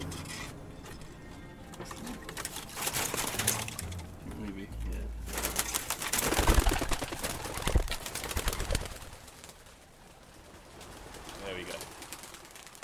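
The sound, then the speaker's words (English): Domestic pigeon hens kept by a pigeon breeder cooing softly: low repeated burbling calls mixed with rustling, wing flutters and shuffling movement, with a voice briefly audible among the birds. “Actually, these are the ladies, so these are the hens.”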